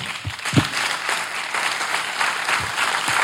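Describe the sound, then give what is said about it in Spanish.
An audience applauds for the king, a steady, dense wash of clapping that holds at an even, fairly loud level throughout, with a few sharper individual claps standing out from the crowd. “Un aplauso para el rey.”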